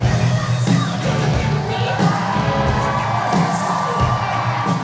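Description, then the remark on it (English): A large rally crowd in Scranton cheers and applauds continuously as Fetterman takes the stage in his signature black hoodie, with shouts and whoops rising above a dense, steady roar of clapping that stays loud throughout. “He takes the stage in his signature black hoodie, lots of applause.”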